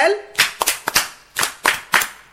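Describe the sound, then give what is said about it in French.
A group of children in a classroom clap a quick rhythmic cheer in unison for a classmate who read a word, about seven sharp claps in a patterned beat, following a brief voice at the start. “un banc pour lui.”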